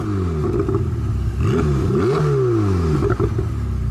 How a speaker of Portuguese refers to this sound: Ouviu? Com o estrondo de motor, seu carro vai fazer o mesmo ronco das grandes marcas.